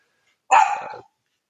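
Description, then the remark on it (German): A single sharp, fairly loud dog bark rings out in an otherwise quiet moment with no talking around it. “okay. Das war der Hund.”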